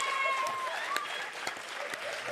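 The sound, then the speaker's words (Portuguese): An audience claps steadily after a card magic trick, a dense crackle of many hands that keeps an even loudness throughout, with a thin high whistle gliding over the applause near the start. “Uma salva de palmas, senhoras e senhores!”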